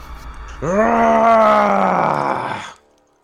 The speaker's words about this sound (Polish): Spróbuję najpierw e, krzykiem zastraszyć tego y, szkieleta. Takim dzikim, bojowym okrzykiem sprawić, że zacznie się strachu.